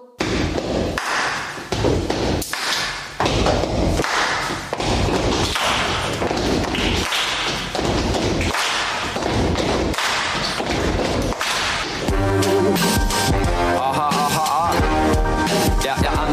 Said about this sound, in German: Ich glaube, das sind Noten. Das sind Schlagzeugnoten, die kenne ich. Hört mal, das geht so.